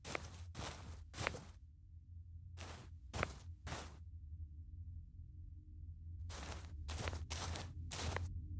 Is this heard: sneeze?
no